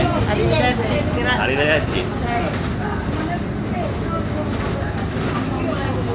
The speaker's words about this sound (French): Et voilà, donc on laisse euh, descendre euh, la dame qui nous a gentiment euh, accordé cette interview et on continue dans notre bus pour, pour la gare.